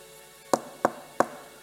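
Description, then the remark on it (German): Three sharp knocks on a door, evenly spaced, each a crisp percussive rap against a quiet background with no talking. “er klopft.”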